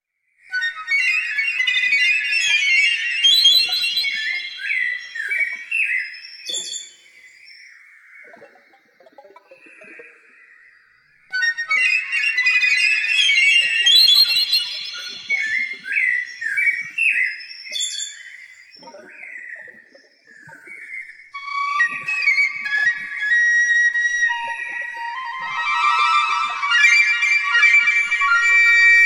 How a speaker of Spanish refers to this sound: Sistemas volátiles, obra de 2011 para flauta pícolo y electrónica en vivo, basada en cantos de pájaros venezolanos en tres movimientos: convolución, chihuihui y refrán, Viadina y zarra